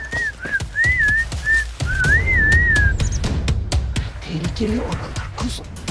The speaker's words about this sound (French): Malgré son handicap, … parvient à communiquer avec sa famille grâce à la langue sifflée